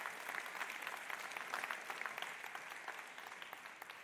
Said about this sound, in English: Give, give God a hand clap of praise there if you love your God.